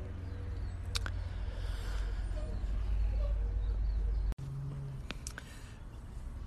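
A garbage truck's deep, steady engine rumble fills the scene from outside, with a couple of sharp metallic clanks and hisses cutting through as it drives past.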